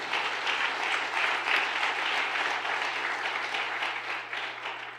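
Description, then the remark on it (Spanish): Loud, sustained applause from a crowd, a dense crackle of many hands clapping at once that holds steady for the whole stretch with no voices over it. “Vamos, denle otro aplauso fuerte.”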